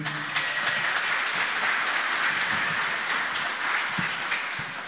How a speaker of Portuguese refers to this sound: Palmas aí meu.